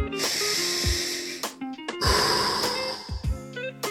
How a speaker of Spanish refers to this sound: Esta respiración a mí me gusta. Respiras por la nariz, exhalas por la boca.